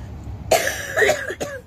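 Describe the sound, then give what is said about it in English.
A fairly loud cough in a few rough bursts, ending with a quick throat-clearing rasp, with no talking over it. “Excuse me, I'm going to cough.”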